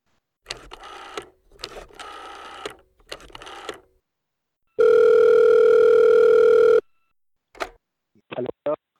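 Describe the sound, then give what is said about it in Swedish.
A phone line rings out with a steady, buzzing ringback tone lasting about two seconds, preceded by three short electronic bursts and followed by a few brief clicks as a call placed to the 2001 chairman of the Norrköping jury connects. “Jag ringer upp ordföranden från 2001 och frågar.”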